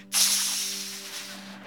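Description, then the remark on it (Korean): A voice makes a long, loud hissing sound, like flaming arrows being snuffed out, sustained for over a second and slowly fading, with a faint steady hum beneath. “불화살이 다 소멸되고 있어.”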